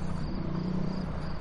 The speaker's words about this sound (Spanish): Los grillos.